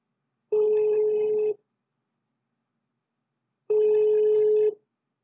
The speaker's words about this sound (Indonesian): Oke, kita coba telepon.